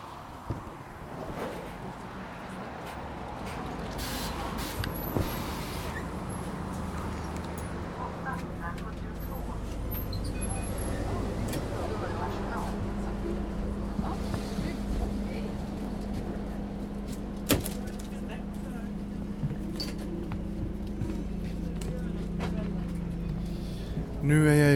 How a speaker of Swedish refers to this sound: Nu står jag vid eh, bussen och väntar på att bussen ska komma. Och nu kommer den.